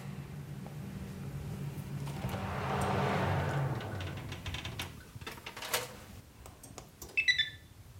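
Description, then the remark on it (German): An oven fan hums quietly with a low, steady drone while the oven preheats on the hot-air setting at 160 degrees, joined by a soft whooshing swell and then scattered light clicks and rattles near the end. “Jetzt läuft der Ofen gerade warm und man hört ja auch das Geräusch, so ein Ventilatorart eher leise.”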